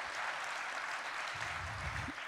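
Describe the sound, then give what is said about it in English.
A crowd applauds with dense, steady clapping that holds at an even level throughout, with a few faint low murmurs mixed in near the end. “So, can we just clap it up one more time for God's provision?”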